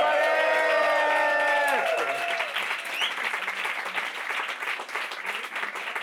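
An audience breaks into steady, dense applause lasting several seconds, opening with sustained cheers and whoops from the crowd before the clapping carries on alone at an even level, applauding the performer's roommate who sells t-shirts at the back.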